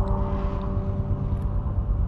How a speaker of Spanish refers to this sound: El autobús arrancó, aún sin conductor, y comenzó a atravesar la niebla.